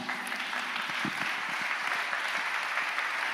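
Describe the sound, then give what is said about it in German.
A church audience claps steadily for a guest who has been asked to stand up, a dense, continuous wash of many hands applauding at an even level for a few seconds, with no voices standing out. “Ihr dürft ihm mal einen Applaus geben.”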